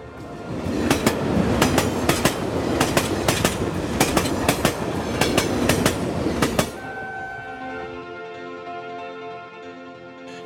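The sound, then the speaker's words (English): A train rumbles along the rails with a steady clickety-clack of wheels crossing track joints, then slows into a smoother, humming roll with a faint tonal whine near the end. “And the lonely train ran to its destination.”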